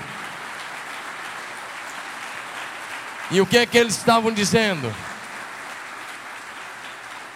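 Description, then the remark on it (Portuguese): An audience at a church service applauds the Lamb (Jesus) at the preacher's call, in a steady, dense wash of clapping that runs throughout, and a man's voice briefly speaks over it partway through. “Então dá um aplauso ao Cordeiro, é melhor que você puder.”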